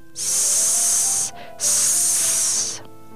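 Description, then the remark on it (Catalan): Two long, loud hisses like a snake, each lasting over a second with a short pause between them, sharp and breathy, with no talking. “Mentre baixava va sentir un soroll estrany.”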